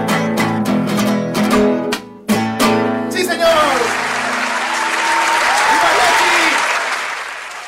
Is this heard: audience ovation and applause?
yes